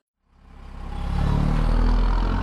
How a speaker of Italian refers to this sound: La nostra macchina del tempo ci ha portato all'interno di, di un autobus. Il mezzo è semivuoto e seduto davanti a noi vediamo una giovane madre con al fianco quello che pare essere suo figlio.